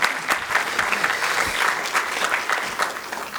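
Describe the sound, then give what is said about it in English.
A crowd claps steadily and fairly loudly for a few seconds for the contestants of a season final, a dense patter of many hands with no voices standing out. “So let's hear it for our, for our contestants tonight.”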